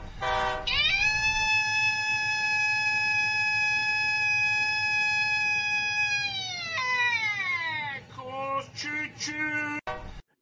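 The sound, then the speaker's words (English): A person vocally imitates a train horn, holding a loud, steady harmonic tone for several seconds before it sags and bends downward, ending in a few wavering, sliding whoops. “do his best impression of a train.”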